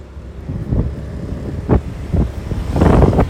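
A vehicle rumbles along over a rough surface, with several heavy jolts and thuds as it drops through a deep pothole, amid steady low engine and wind noise.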